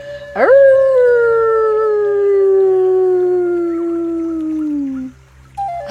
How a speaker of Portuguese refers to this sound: Ela ergueu sua voz para saudar seus irmãos e irmãs, respondendo com um uivo igual ao deles